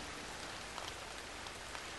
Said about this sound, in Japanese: あまりの激しい雨に私たちは大声で笑った口に雨が入ってきた